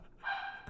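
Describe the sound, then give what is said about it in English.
A single short, high-pitched dog bark rings out faintly, slightly drawn out like a yelp, with no one talking. “Is that a dog? That's a dog.”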